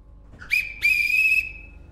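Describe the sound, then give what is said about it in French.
A shrill whistle from the 'autorail baleine' railcar sounds twice at Nîmes station, France, as it departs for the port of Gros du Roi: a short high blast, then a longer sustained one that holds steady before fading, with a low rumble underneath and no talking. “Le voyage commence en gare de Nîmes à bord du fameux autorail baleine qui file trois fois par jour vers le port du Gros du Roi.”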